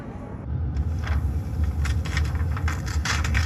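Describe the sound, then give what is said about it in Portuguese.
Steady low engine rumble and road noise inside a moving car, with faint rustling and soft murmurs over the constant drone as a senator opens an envelope in the car. “No carro, o senador está abrindo o envelope.”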